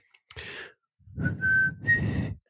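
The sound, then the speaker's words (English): Someone tries to whistle a short tune, mostly producing airy, breathy blowing with just a couple of brief clear notes breaking through before it falters. “It's the whistle from Hunger Games, but they didn't do it in the movie”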